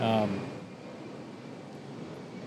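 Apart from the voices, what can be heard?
airplane passing overhead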